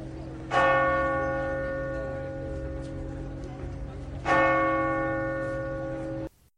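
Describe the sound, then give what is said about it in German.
Two deep, resonant strikes of a large church bell in Lourdes, about four seconds apart, each with a sharp onset and a long humming decay that rings on until cut off. “Und mit dem Glockengeläut aus Lourdes sind wir auf den Besuch von der Melsergrotte eingestimmt worden.”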